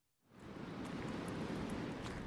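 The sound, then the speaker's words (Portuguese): Atlantic Ocean waves wash continuously onto the north coast of São Miguel island at Ribeira Grande, in the Azores, Portugal, a broad, steady roar of surf that swells in after a brief quiet start and holds at a full level with no voices. “O som do mar não engana. Estamos numa zona costeira, mais concretamente numa ilha.”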